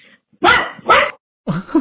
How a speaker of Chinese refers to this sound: 稍等，我们家狗要叫了。